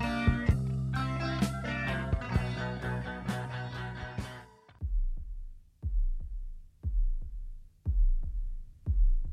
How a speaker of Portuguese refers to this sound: que começa com uma ambientação e por trás dessa ambientação nós temos o som de batimentos cardíacos, que representam o nascimento, basicamente, de uma nova forma de vida, pois o álbum reflete bastante sobre esse tema.